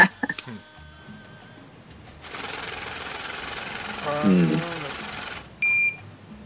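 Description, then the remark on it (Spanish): Sound effect of a machine ironing banknotes: a steady, rattling mechanical whir lasts about three seconds, with a voice briefly heard over it, followed by a short high electronic beep. “Ya sabes cuál es ese sonido, Planchando billetes Esa es la máquina que, que ah, Planchando billetes.”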